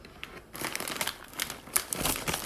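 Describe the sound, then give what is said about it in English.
A plastic bag of gluten-free maple and sea salt kettle corn crinkles and rustles as it is pulled open, a dense run of crisp, uneven crackles that keeps going for a couple of seconds with no voices. “okay what next um should we just go in order and try the popcorn sure so”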